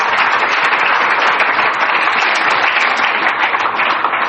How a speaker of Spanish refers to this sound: Para mí no es posible, pero para Dios todo es posible. Dáselo al Señor esta tarde, un aplauso, por favor.